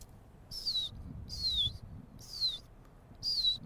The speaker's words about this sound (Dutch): Dat zijn zeisjes. Die zijn heel klein, compacte groepjes.